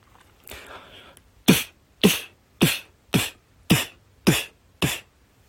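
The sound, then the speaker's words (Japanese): Seven evenly spaced beatboxed (voice percussion) hits, each a mouth-made bass drum thump fused with a crisp snare drum burst at the same moment, loud, following a short breathy exhale with no talking. “なんとなくこう、バスドラムとスネアドラムが一緒になってるかなっていう感じはしてます。”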